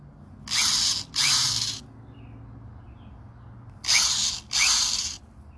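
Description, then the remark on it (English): Harsh mechanical buzzing like a tiny chainsaw, fired in two pairs of short, loud half-second bursts with a gap of quiet between the pairs, no talking. “It's like a baby chainsaw.”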